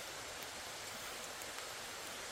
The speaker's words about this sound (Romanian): Chiar dacă e o ceață așa și o burniță în, în atmosferă, vedeți, vede din spatele meu așa, se pierd din ceață, da?